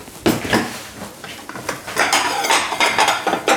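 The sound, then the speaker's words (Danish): Plates and cutlery clatter together as plates arrive, a busy run of bright clinks and knocks, fairly loud, with no talking. “Så er der kommet Tallerken til os.”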